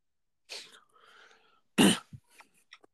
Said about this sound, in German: Ja, sorry. Also so hustend habe ich ihn nicht verfolgt.